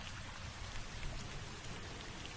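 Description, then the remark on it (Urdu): Heavy rain suddenly pours down from black clouds in a steady, dense hiss, loud, with constant pattering and no break across the whole stretch. “آخر ایک دن اچانک کالے کالے بادل آسمان پر گھر آئے اور چھاجو پانی برسنے لگا”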